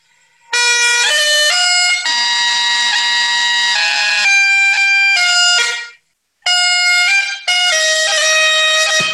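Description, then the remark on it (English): A bagpipe chanter played very close to its choke line gives a loud, harsh, reedy tune of shifting sustained notes, breaking off briefly near the end before resuming. No one speaks. “But then when that sound comes in, if we were to start to play a tune at like really close to that choke line, the sound of the chanter is not good.”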